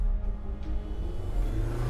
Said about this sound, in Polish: Dwa auta ruszyły z piskiem opon.